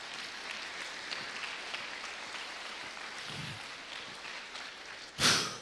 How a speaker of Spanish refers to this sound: Dele palmas al Señor, hermano.